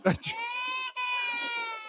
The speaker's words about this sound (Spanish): todavía está el audio Mustafa Ali. ¡Ey! Llorando ahí, tirado.